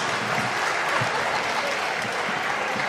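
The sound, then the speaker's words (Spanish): A crowd applauds steadily, many hands clapping in a dense, continuous wash of noise that holds at an even, fairly loud level throughout without pause. “Dejen de aplaudir, no sean pelotudos.”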